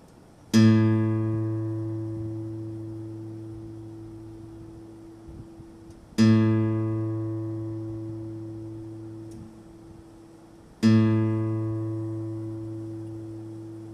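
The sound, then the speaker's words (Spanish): A guitar's fifth string is plucked, sounding the low A reference note for tuning three times, each pluck ringing out and slowly decaying before the next, clear with no talking. “En este ejercicio, usted con su guitarra trate de llegar al sonido más aproximado, si puede el mismo, de la cuerda de la. Estamos hablando de la quinta cuerda.”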